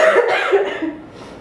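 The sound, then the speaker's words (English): A short burst of harsh coughing, loud at first and trailing off within about a second, with no talking over it. “Girl, look, my cough's coming on now.”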